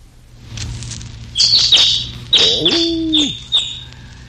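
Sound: sparrow chirping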